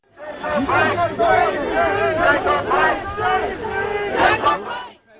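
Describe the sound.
A protest crowd chants loudly in unison, many voices rising and falling in repeated rhythmic phrases, then the chant breaks off briefly near the end.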